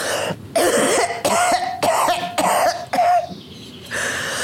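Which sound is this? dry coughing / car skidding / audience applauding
dry coughing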